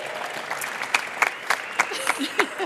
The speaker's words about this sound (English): From Team Payments, give them another round of applause.